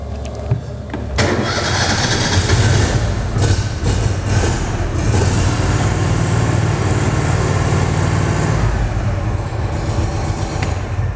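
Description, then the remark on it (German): The engine of a tracked amphibious rescue vehicle cranks and catches after about a second, then settles into a loud, steady, rumbling idle with no voices. “Ich starte ihn mal ganz kurz, das ist eigentlich eine ziemlich simple Sache.”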